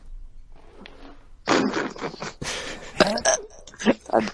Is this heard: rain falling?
no